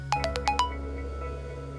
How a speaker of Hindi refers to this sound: बस फोन देखते रहती है तभी उसको एक मैसेज आता है